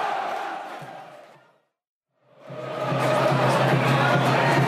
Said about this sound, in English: They're singing it. Taking They're singing our chant. Taking them long enough, but they finally got round to it. Uh, not very loud though.